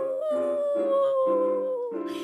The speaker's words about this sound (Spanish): no se sabe bien si en Fortín la Valle o en la villa del río Bermejito, mientras el Héctor Frías estaba durmiendo a pata suelta, lo despertó un aullido